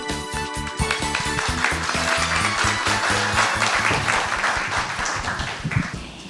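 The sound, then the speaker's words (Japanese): A crowd applauds steadily throughout, a dense wash of clapping layered over loud, upbeat walk-on music with a strong, regular beat, welcoming the AS ONE Corporation PR and IR department head at an IR seminar held in Hiroshima on October 14. No one speaks. “どうぞ大きな拍手でお迎えください”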